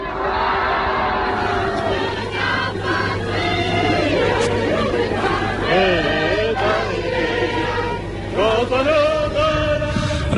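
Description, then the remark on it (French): A large crowd sings the Marseillaise together outdoors on the Champs-Élysées in Paris on 8 May 1945, voices loud and massed with a roomy blur, over a steady low hum that runs through most of the song. “on a souvent l'occasion d'entendre la Marseillaise, mais celle que l'on vient d'entendre chanter le 8 mai 1945 sur les Champs-Élysées, où elle avait été interdite pendant quatre ans d'occupation, évidemment, elle est, émouvante.”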